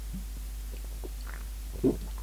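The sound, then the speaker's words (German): Quiet swallowing while drinking cold tap water with peppermint leaves in an attic flat in Würzburg on a hot evening, with one clear gulp near the end and soft wet mouth sounds before it. There is no talking. “Aber fleißig trinken. Auch diesmal werde ich etwas Schluckgeräusche hören.”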